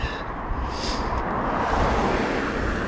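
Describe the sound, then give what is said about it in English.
Street traffic with cars driving past along a windy stretch of city blocks during a walk, a steady loud roar of tires and engines with one vehicle whooshing by partway through; no one speaks. “Oh, seems to be a lot of car traffic this time of day, too.”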